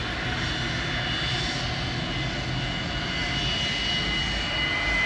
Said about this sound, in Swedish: Planet måste ständigt befinna sig startklart och motorerna hållas gående, kräver kaparen.